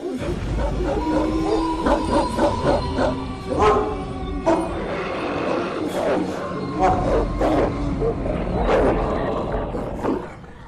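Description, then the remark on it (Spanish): Fierce barking of a three-headed dog guarding the cavern of the dead in Hades, mixed with snarls and deep growls, loud, repeating in overlapping bursts over a low rumbling background for the whole stretch. “Vive en la caverna donde llegan los espíritus de todos los muertos su trabajo es acariciar las almas de los difuntos que entran al Hades y amenazar con los ladridos de sus tres hocicos a todos los que pretenden salir de ahí.”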